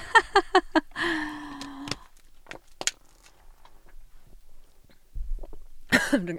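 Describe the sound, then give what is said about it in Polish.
A person coughs: a quick run of short, sharp bursts, then a few scattered coughs and throat sounds separated by quiet pauses, with one more loud cough at the end. “przerwa na kaszynięcie.”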